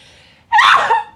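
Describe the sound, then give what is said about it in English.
A single sudden sneeze bursts out, loud and breathy, after a moment of faint quiet breathing, then fades quickly. “I need to sneeze.”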